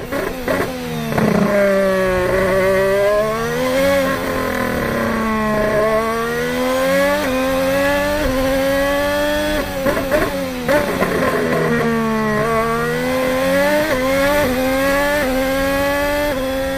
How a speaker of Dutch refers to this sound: Eerst even de, hoe die Honda klinkt in kwalificatiemodus. Oh. Die, eh, die, gaat, eh, die gaan we nu even horen.